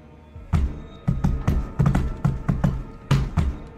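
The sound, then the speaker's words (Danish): A series of solid knocks on a door, about nine dull thuds in loose, uneven bursts, fairly loud with no voices, as a crowd of young people aged 15 to 32 knock on a shop's doors on Black Friday before it opens at 10 o'clock. “En masse unge mennesker i alderen 15-32 år står og banker på roden.”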